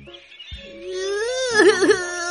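A voice acting out a little rooster crying in a children's story: a drawn-out, wavering wail that rises in pitch and breaks into quivering sobs near the end, with no words spoken.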